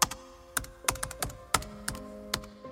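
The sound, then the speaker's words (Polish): Steady typing on a computer keyboard, a series of crisp key clicks and thuds at an uneven rhythm, fairly quiet, with no one speaking. “Za pomocą mozolnego, wręcz maniakalnego przesiadywania z rękoma nad klawiaturą i oczami wbitymi w ekran monitora Hakerzy długimi latami budują swoje nieocenione umiejętności, które mogą zatrząść wirtualnym światem.”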